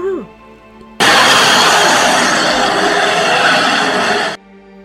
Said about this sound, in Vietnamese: Thế là nó nấp xuống Nó chờ đợi Cô bé đi qua cầu Nó nhảy lên Gầm to